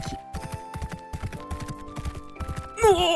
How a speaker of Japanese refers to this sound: その道中路傍に降りていた鳥の群れがバタバタと飛び立つと馬がその羽音に驚いて左へそれて走っていき